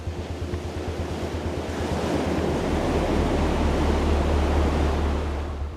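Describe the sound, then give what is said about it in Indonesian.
Ocean waves crash onto the shore in a loud, continuous roar of surf, with wind buffeting the microphone and a rhythmic low rumble early on. No voices are heard. “Deburan kedua.”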